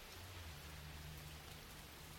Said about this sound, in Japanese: 雨かやべえ傘忘れたな